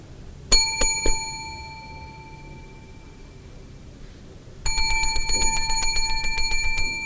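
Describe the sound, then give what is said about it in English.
At a front desk, Agent Lee impatiently strikes a counter bell three times in quick succession, each bright ding ringing out, then after a pause hits it rapidly and repeatedly in an impatient, continuous, loud jangle. “He bangs a bell on the counter.”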